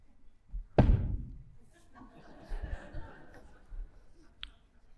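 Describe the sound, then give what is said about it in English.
Chairs being moved as a person switches chairs: a sharp, heavy thump early on, then a stretch of shuffling and scraping, ending with a small click. “So I'm going to switch chairs.”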